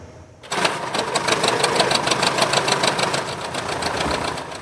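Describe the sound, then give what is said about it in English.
The Canadian Museum of Flight's vintage Tiger Moth biplane piston engine catches abruptly after a brief quiet moment at a Langley, BC airport, then runs loud and steady with a rapid, rhythmic clattering beat. Fired up for a flypast honoring veteran Jack Logan's 100th birthday on the 77th D-Day anniversary. No one speaks. “The Canadian Museum of Flight firing up its Tiger Moth biplane in honor of Jack Logan of Tsawwassen.”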